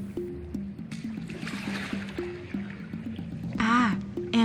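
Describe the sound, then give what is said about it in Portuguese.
A small jangada raft glides through water with continuous sloshing and trickling, steady, while a low humming tone steps between pitches underneath and a brief voice-like sound rises near the end. “uma jangada que tá vindo ali.”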